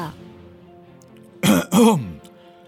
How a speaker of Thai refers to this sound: นายอำเภอกระแอมกระไอ แล้วก็กล่าวต่อไปว่า